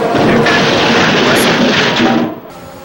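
Lance Stroll's Formula One car goes over the curb and slams into a barrier with a loud, harsh, sustained crash and roar of grinding impact, cutting off abruptly after about two and a half seconds.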